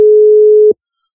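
A single loud, steady telephone busy-tone beep lasting under a second, clean, cutting off abruptly into silence after a dropped call.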